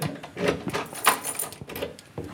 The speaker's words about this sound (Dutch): Zo, de deur weer goed op slot.